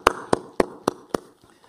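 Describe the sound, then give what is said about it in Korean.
Five sharp, evenly spaced claps ring out in a steady rhythm as a church audience at a Sunday morning service claps in praise to God, then the sound trails off into quiet. No one speaks. “할렐루야 우리 하나님께 감사와 영광의 박수를 올려드리겠습니다.”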